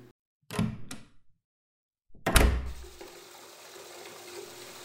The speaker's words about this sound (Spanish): Mamá Grande llenó la bañera de agua calientita. Vació medio bote de espuma de baño en el agua.